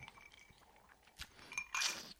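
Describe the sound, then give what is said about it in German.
Glasses clink together in a toast: a few light, ringing taps close together, with a brighter clatter near the end. Fairly quiet, with no talking. “So, Skoll, Prost, ähm, Cheers. Zum Wohl. Endlich wird getrunken.”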